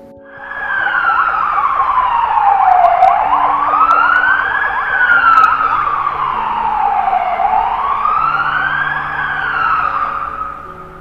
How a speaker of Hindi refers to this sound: सिमरन ये एम्बुलेंस की आवाज सुन रही हो ना अब तो इसी आवाज के साथ हम लोगों की नींद भी खुल रही है